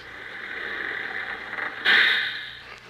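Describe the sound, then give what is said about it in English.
A sightseeing tour bus in Beverly Hills rumbles and hisses steadily as it comes to a stop to let a passenger off, then a loud burst of air-brake hiss bursts out near the end before the idling engine settles again. No one speaks. “Uh, stop the bus.”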